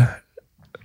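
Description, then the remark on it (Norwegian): One sharp, forceful sneeze bursts out loudly at the very start, then fades quickly into near silence with a few faint small sounds. “Hæ? Prosit.”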